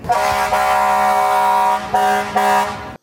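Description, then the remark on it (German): A fire truck's air horn blares loudly, one long sustained blast followed by two shorter honks, harsh and brassy with no other sounds around it. “Und zum Bubentraum gehört sicher auch das Fahren mit Blaulicht oder vielleicht auch einfach das Zeuchen vom Horn am Feuerwehrauto.”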